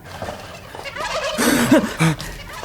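bird calls

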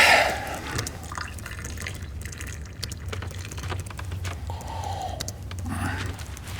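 coffee poured

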